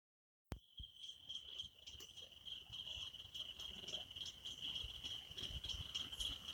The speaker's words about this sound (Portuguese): Para mim, este é o som da liberdade. Quando escuto o som dos grilos numa mata, Sei que estou no lugar certo, onde trabalho e lazer se encontram.